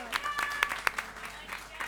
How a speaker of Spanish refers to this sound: un aplauso grande para